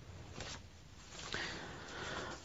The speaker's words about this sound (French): il faut d'abord que je mette mes feuilles dans l'ordre, mes petites feuilles. Voilà, voilà. Pardonnez-moi.